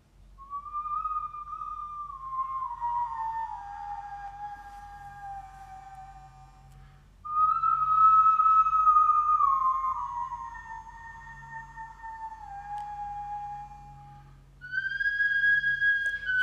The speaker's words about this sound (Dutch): En ik ga nu een kort stukje laten horen van hoe ehm, deze fluit zou hebben geklonken.